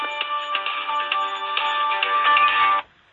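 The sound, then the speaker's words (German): A mobile phone ringtone plays loudly, a bright electronic melody of stacked tones with rhythmic pulses, lasting nearly three seconds before cutting off abruptly; the phone had not been set to silent. “Ich habe vergessen, mein Handy leise zu stellen.”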